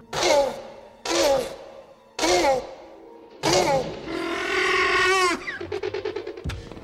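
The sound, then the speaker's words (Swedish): A person imitates the call of the velociraptor Blue from a dinosaur film, as it looks out over a residential area: four short, raspy shrieks, then a longer warbling screech that breaks into a rapid, rattling chatter. Loud, with no talking. “Blue blickar ut över ett villaområde och gör det här liksom Velociraptor-ljudet.”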